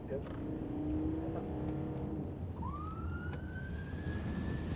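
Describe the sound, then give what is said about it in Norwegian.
An ambulance siren wails over steady engine and traffic rumble as the ambulance speeds at full speed down through Sandaker and Torshov in Oslo, Norway, a low tone fading before a clear rising sweep climbs and holds. “er en ambulanse i full fart på vei nedover Sandaker og Torshov i Oslo.”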